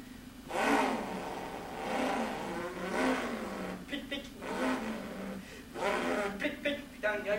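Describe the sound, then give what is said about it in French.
A voice imitates a car engine revving, producing several rising and falling vroom sounds in repeated swells, fairly loud, with no other talking. “j'ai un bruit de mon moteur.”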